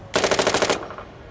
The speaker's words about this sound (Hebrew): צרור יריות. כן, כן. בלילה הראשון שלנו בבוסטון נקלענו לקרב כנופיות שאת התוצאות שלו ראינו למחרת בבוקר במהדורת החדשות המקומית.